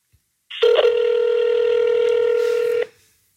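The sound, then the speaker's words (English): A phone call connecting: a single steady electronic ringing tone holds for about two seconds, loud, then cuts off. No one speaks. “So I am about to call her.”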